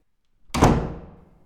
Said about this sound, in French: Claquant la porte, Atsuko partit en suivant le chemin que lui avait indiqué Hiroshi.